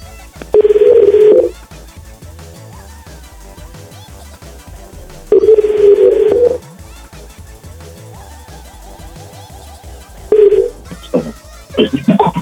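A telephone ringing tone sounds in long, evenly spaced buzzes about every five seconds, loud and clear over a faint background hum, followed by a quick burst of dialing tones at the end.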